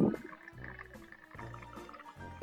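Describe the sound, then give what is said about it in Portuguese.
A thermos flask gurgles in a series of low, bubbly, rumbling bursts that rise and fall over a couple of seconds, moderately loud, with no voices over it. “É, é a garrafa térmica.”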